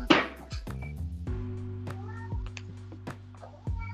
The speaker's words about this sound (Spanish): ¿A el gato, weón? A gato. Está todo el rato llorando, weón.